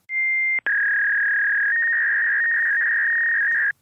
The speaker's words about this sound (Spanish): Un fax. Sí, un fax. Yo no sé quién usa fax hoy en día.